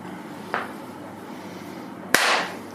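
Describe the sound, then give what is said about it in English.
A single sharp hand clap cracks out loudly against a quiet background, preceded by a softer, brief tap a moment earlier. No one speaks. “Clap, please.”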